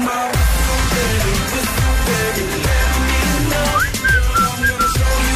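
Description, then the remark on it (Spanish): A bright whistled melody rides over a pop track with a steady, thumping bass beat, the whistling clear and prominent in the mix, with no voices speaking. “En un momento cantamos, por ejemplo, … de … y también vamos a silbar.”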